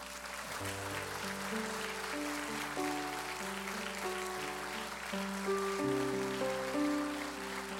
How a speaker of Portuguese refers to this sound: Você pode dar um aplauso para Jesus?